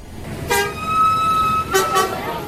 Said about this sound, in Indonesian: Lalu terdengar suara klakson mobil yang bernada panjang, disusul suara orang-orang berteriak.